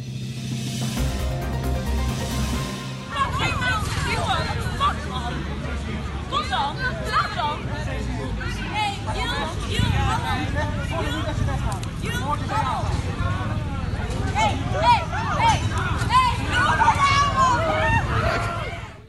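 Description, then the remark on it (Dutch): A chaotic, crowded scene full of high-pitched screaming and overlapping shouted voices, loud and continuous for the whole stretch, with a dense hubbub of people underneath, from a video of police forcefully handling female Veritas students; a girl shouts at an officer. “ja, een hoop gegil.”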